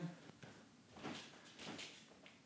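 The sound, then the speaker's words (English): A recycling bin drawer slides open with a soft rumble, followed by a light clatter as a soda can is tossed in and the drawer rolls shut. “Opening my uh, drawer to my recycling bins, tossing in the can, pulling the thing,”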